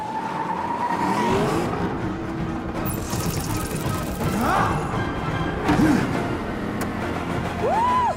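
In a clip from Black Panther, a car on a remote driving system revs hard and pulls away, its pitch sweeping up and down in several bursts over a loud, continuous rumble, with brief tire-squeal-like whines near the end.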